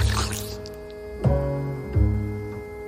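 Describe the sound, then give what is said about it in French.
A voice imitates a herd loudly slurping cold soup: a wet, noisy intake at the start, then two sharp smacking slurps spaced under a second apart, fairly loud. “et qui regarde son troupeau bouffer la soupe froide. Et ça fait des grands...”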